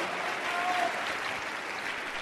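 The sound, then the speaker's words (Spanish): A crowd claps steadily in a dense, continuous wash of applause that stays fairly even from start to finish, with no voices standing out, applauding the business's leaders, its "emeralds and diamonds", who are present. “Vamos a un aplauso a todos sus esmeraldas y diamantes, por favor, que están aquí presentes.”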